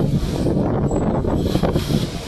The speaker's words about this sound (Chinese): 听到了吗？我猜我在说话的过程当中，一定有，一定有那种呼呼的风声，也许都会让你听不清我在说什么。